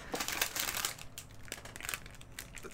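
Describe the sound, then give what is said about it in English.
Busy crinkling of a thin plastic donut wrapper while someone eats, rustling in irregular bursts for a few seconds with a few sharper crackles, no talking over it. “you're stuffing face right now on a podcast that's what you're doing you're eating”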